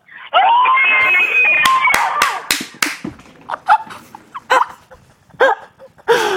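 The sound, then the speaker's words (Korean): A group of young student teachers at their school, asked to shout all together, shrieks and shouts in a loud, high-pitched burst punctuated by several sharp claps, then breaks into scattered shorter yells. “그럼 다 같이 소리 질러!”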